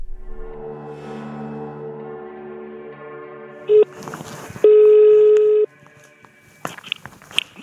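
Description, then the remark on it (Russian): A telephone call being placed to the director of the Anichkov Lyceum: a short burst of dialing tones, then one long, steady, mid-pitched ringing tone, followed by faint clicks and handset noises. A low humming drone precedes the call. “Мы позвонили директору Аничкова лицея”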